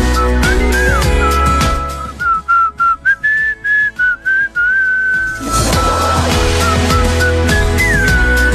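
A bright, clear whistled melody carries a song tune over a steady backing track, with a short stretch of rhythmic choppy pulses partway through before the full accompaniment returns.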